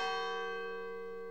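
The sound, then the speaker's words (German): A single church bell strike rings out with rich, sustained overtones, its clear metallic tone slowly decaying without any voices present. “Und in schicksalhaften Stunden erklinge aus der tintenblauen Tiefe ein Glockenläuten.”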